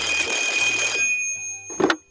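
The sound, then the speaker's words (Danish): A telephone bell rings in a dense, rattling burst for about a second, then fades into a lingering metallic hum before a brief clunk, like the receiver being picked up. “Øh, nå, der er ikke tid til afslappning, for telefonen den ringer.”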